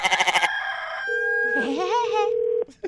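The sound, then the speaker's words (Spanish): A rooster crows in a long, wavering call, overlapping a steady electronic tone like a phone line, with a quick burst of rhythmic pulses just before. No one speaks. “Oiga, me hace favor de callar los gallos porque no dejan dormir.”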